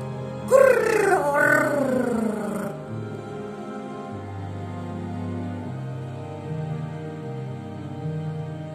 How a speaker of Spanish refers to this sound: Oh, seguro que al escuchar ese grito, al pobre lobo se muere de miedo, dice mamá.